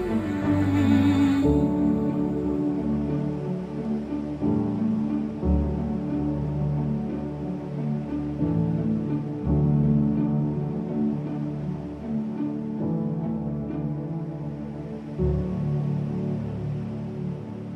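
A worship song plays steadily and fairly loud throughout, with a full, sustained band sound and no talking over it.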